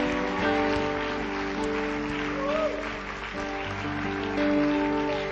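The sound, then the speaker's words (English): A church audience claps steadily in a dense, continuous patter as a group of people move out, mixed with sustained musical chords playing underneath throughout. “And uh, so let's just clap these guys as they as they move on out.”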